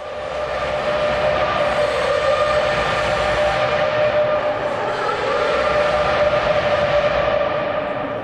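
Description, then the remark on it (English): A racing car, the MB 423 23, roars past as a loud, continuous high-pitched whine with buzzing harmonics. The pitch dips briefly partway through, then climbs again. No one speaks. “But then he went round in his MB 423 23 and it made this sound. I'll play it for you now.”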